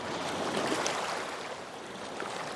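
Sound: sea waves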